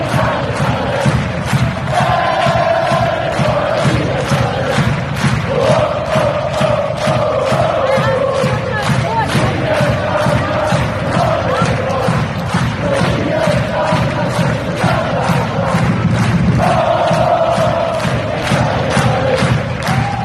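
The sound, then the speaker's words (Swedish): A large crowd of football supporters chants in unison, their sung phrases rising and repeating over a constant roar of cheering. Loud and sustained throughout, with no single voice standing out. “Är det inte lite värt att, ge, att ta, till, ta till sig klacken nu också? En applåd menar du?”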